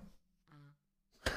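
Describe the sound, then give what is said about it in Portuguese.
A voice makes a short, low humming boom through the end of a long PVC pipe in imitation of a deep parrot call, followed by a brief breathy burst; the real call is so low in frequency it can be heard from very far away. “É um barulho com uma frequência tão baixa que dá pra escutar de muito longe.”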